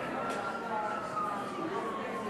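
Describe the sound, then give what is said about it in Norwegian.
Steady New York City street ambience heard from outside a room, with a constant traffic rumble and a siren wailing faintly through it, and indistinct murmuring in the background. “Og lyden av byen utenfor rommet. New York City.”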